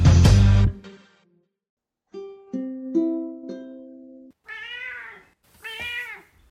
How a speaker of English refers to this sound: So if you hear purring, that's what's up. She won't shut her mouth.